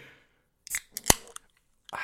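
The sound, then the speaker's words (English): A soda can being snapped open: a few small metallic clicks, then one sharp, loud crack of the tab, followed by short bursts of bright fizzing hiss. No one speaks. “Oh, dude, he just snapped open a can of nostalgia.”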